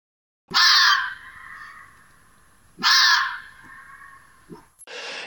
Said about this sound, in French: c'est le fameux cri du renard, ou plutôt de la renarde en général